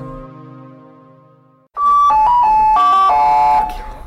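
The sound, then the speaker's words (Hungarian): A railway station announcement chime before an announcement of a passenger train arriving from Széchenyhegy on track one: a loud, bright run of bell-like notes stepping up and down in a short melody that rings on briefly, after a soft, low fading tone. “Biztosan mindenkinek ismerős ez a szignál.”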